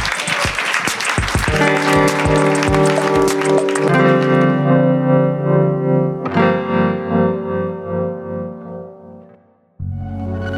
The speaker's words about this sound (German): Großen Applaus.